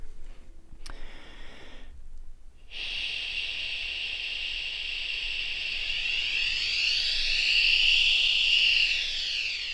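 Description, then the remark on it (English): A steady, breathy "shhh" hiss whose tone sweeps and wavers as a clipboard is moved toward and away from the face, giving a swirling, phasing quality that rises and falls over several seconds. “And I'm going to move this clipboard toward and away from my face.”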